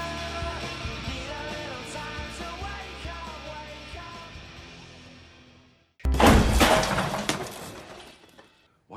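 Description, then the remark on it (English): A scene from the film Whiplash: calm tonal music fades out, then a sudden loud crash as a chair is hurled and smashes, with a burst of clattering and breaking that dies away over about two seconds. “you suppose I just hurled a chair at your head, Neiman?”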